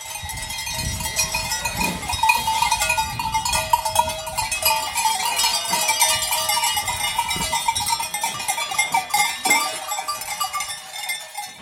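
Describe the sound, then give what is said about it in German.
Twelve goats on a farm bleat repeatedly while many bells clang and jingle continuously, a busy herd moving together with overlapping calls and a steady metallic ringing throughout. “Ebenfalls auf unserem Betrieb sind im Moment zwölf Geiss, die im Sommer ebenfalls auf der Alp sind und rund 100 Tage auf der Alp verbringen”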